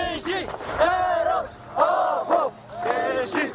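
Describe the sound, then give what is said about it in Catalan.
Kurdish Communist Party guerrilla fighters, who fight for the liberation of the Kurds in Turkey, shout a rhythmic battle cry in unison, three or four long chanted bursts from many voices, loud, with short gaps between them. “Aquests que sentim són guerrilles del Partit Comunista Kurd, són els que lluiten per l'alliberament dels kurds a Turquia.”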